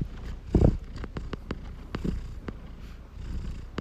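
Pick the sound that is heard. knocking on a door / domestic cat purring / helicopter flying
domestic cat purring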